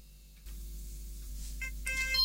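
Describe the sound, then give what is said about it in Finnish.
A phone ringtone starts near the end, bright electronic tones chiming in short melodic bursts over a steady low hum, growing louder, with no one talking. “nyt se Jaska soittaa. Vastataanpa puhelimeen tästä.”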